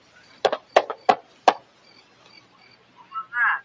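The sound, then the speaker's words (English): Four sharp, dull knocks on a human skull, struck in a quick, slightly uneven series, followed after a pause by a brief murmured voice. “That was my skull.”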